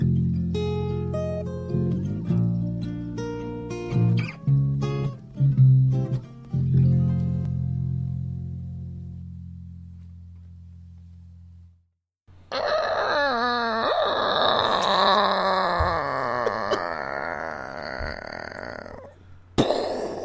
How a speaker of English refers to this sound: It's the door opening